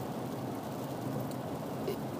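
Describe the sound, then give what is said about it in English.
Steady rain falls continuously, a dense, hissing patter with faint drip accents, moderately loud and even throughout with no voices present. “It's raining in the background.”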